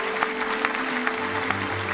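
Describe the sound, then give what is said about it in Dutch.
An audience applauds steadily, many hands clapping in a dense, continuous patter at moderate loudness for the whole two seconds, with no one talking over it. “Waarom geen applaus?”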